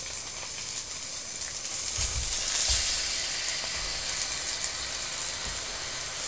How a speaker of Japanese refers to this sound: 肉の音だよ。やばくないこれ。